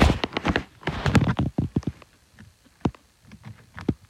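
A guinea pig chewing and crunching food, a quick run of crisp clicks and nibbles that slows into scattered bites, with no voices.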